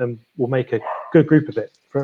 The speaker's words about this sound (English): The, the, the dog's just telling you in dog speak, like, uh, stop talking yeah.